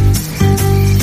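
A short burst of a cover version of a song played on ukulele, with bright strummed chords over a sustained melodic line, loud for about a second.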